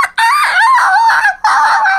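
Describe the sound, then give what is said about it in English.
A person's voice imitates a dog yelping after being stepped on upstairs: two loud, high-pitched, wavering wails, the first long and sliding up and down, the second shorter after a brief gap, with no other sounds. “And the dog is a drama queen and began singing the song of the squished dog.”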